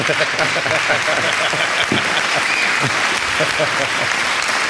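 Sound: applause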